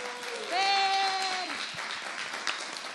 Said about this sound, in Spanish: Así que por favor regalémosles un fuerte aplauso.